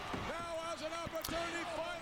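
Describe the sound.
A few heavy, booming thuds as the wrestler Bart slams his opponent headfirst onto the ring canvas, landing under a man's continuous excited talking with crowd noise behind.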